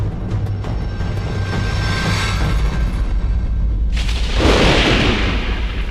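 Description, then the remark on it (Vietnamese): A loud thunderclap from a blinding lightning bolt striking straight down during heavy rain at night bursts suddenly after a low, steady rumble, its sharp crack spreading into a sustained crackling roar that fills the space, with no voices. “Bỗng một tia sét chói lòa giáng thẳng xuống”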